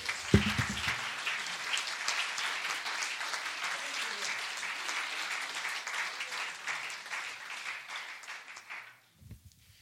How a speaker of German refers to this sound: Halleluja, geben wir ihm doch einen Applaus.